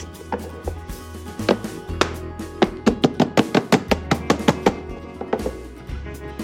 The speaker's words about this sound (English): My marshmallow loaf has set, it is firm, and I'm ready to cut them into squares. I'll loosen the sides here with a small offset, and I'll turn it onto my cutting board.